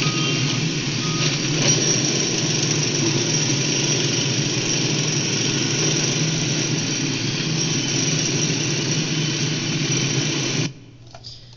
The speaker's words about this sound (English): "Tractors!" shouted Mr. Fox, "and mechanical shovels! Dig for your lives! Dig! Dig! Dig!"